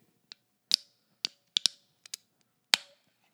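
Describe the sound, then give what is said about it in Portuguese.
A beer can being opened: a handful of sharp metallic clicks and taps from the tab, the last one louder with a short fizzy hiss trailing off, no voices. “Calma aí que eu vou até abrir a cerveja agora para continuar falando.”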